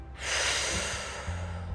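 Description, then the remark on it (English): A deep, airy breath drawn in and let out during a breathing exercise while drawing the number three with the thumb and two fingers, a steady rushing sound lasting over a second with no talking. “Drawing the number three again with your thumb and your two fingers together so a bit like doing a Daffy Duck impression with your thumb and your two fingers, drawing the number three again, breathing it in and out.”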